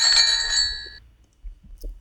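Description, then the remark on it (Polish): A bell is rung once, giving a bright, sustained metallic ring that fades out over about a second, followed by quiet low rumbling and faint soft noises. “Dzwonimy, tak.”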